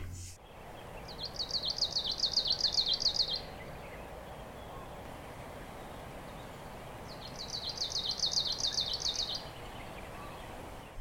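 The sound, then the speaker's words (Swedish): A bird in Kamchatka sings two bursts of rapid, pulsing, stuttering notes, each lasting about two seconds, separated by a pause, over a steady low background hiss. The song sounds jerky and rhythmic. “Det är mm. liksom pulserande och, och en helt annan rytm och stötigt.”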